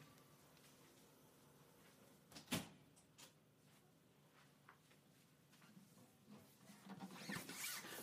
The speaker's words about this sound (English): Maybe what I should do is close my door because Robert left it open.